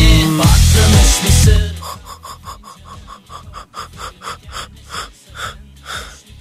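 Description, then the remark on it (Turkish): A loud, drawn-out yawn fills the opening seconds, followed by a quieter run of short, rhythmic breathy puffs. “Esneme servisimiz açılmıştır tatlım.”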